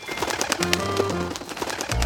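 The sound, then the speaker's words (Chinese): Small birds in a tree, startled, fly off in a rapid flurry of wingbeats, quick soft whooshing flaps repeating in a fast, steady rhythm for about two seconds, with low humming tones underneath and no talking. “本来睡得很香甜的兔子，被小鹿卖力奔跑的声音，还有鸟儿快速拍打翅膀的声音给吓醒了。”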